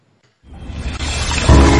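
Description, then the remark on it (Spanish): After a brief silence, a loud jingle for the radio show Río de la Vida bursts in with a rushing, whooshing swell that builds and thickens into a fuller, bass-heavy musical hit near the end. “vamos a meterle ahora mismo la llamada, metemos jingle y para adelante.”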